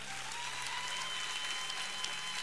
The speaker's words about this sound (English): So, yeah, give them a hand clap.